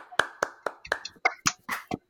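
Applause from a few people: about nine sharp hand claps in a quick, fairly steady rhythm, with a faint voice murmuring underneath during the first second.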